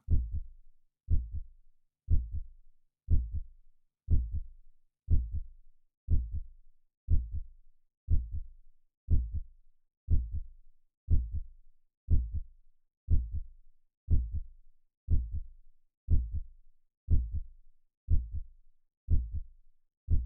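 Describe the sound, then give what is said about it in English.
A steady heartbeat thumps low and deep, roughly one beat per second in an even rhythm. It sounds muffled, with no voices or other sounds around it. “Feel your heartbeat or listen to the sound of the heartbeat you can hear.”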